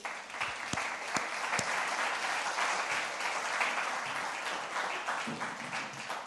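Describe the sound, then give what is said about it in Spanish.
An audience applauds God the Father steadily, a dense wash of many hands clapping at a fairly even level, with a few sharper individual claps standing out near the start. “Dele un aplauso al Padre, por favor, ¿sí?”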